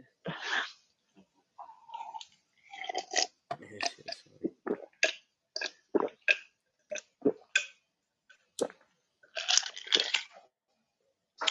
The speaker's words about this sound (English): I put a couple too many ice cubes in this glass of Mountain Dew, but it's really good. It's hard to drink it though. It sounds like it. it sounds like you're struggling, like you ain't had nothing to drink.